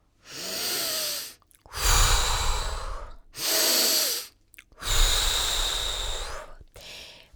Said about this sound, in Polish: Profesor twierdził jednak, że siła wdechu jest niezwykle ważna przy instrumencie, więc starałem się oddychać równo i głęboko.